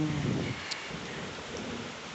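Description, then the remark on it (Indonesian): Steady rain hissing across the whole clip, with a low rumble of thunder underneath, loudest near the start, and no voices. “Hujan, hujan.”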